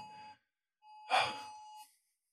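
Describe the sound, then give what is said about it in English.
A phone lying across the room sounds an alert: a short electronic tone, a brief pause, then a longer buzzy tone with a breathy burst over it. The beeps are moderately loud and steady in pitch, with no talking. “What is that beeping?”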